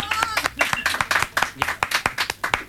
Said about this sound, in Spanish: ¡Ya! Lo vamos a decidir por aplauso. Vamos a decidirlo por aplauso. Cállate, huevono. Ya, chiquillos aplaudan y esto va a ser democrático.